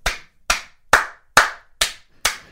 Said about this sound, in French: et il applaudit.